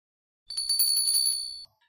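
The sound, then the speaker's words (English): A bell above a shop door rings in a quick, bright metallic trill for about a second, clear, then stops abruptly as someone walks through the door. No voices accompany it. “As the bell above the door rang and Pete appeared, Richard rushed forward towards the counter.”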